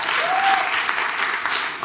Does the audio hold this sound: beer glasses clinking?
no